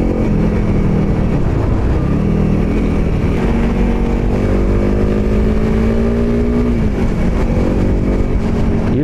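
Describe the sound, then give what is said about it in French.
A small 26 or 27 horsepower adventure motorcycle engine with a six-speed gearbox labors loud, its pitch climbing steadily then dropping and rising again as revs shift while climbing a short ascent with hairpin bends, with constant wind rush and no voices. “Là vous l'entendez, je suis en train d'attaquer euh, une petite montée avec des épingles à cheveux.”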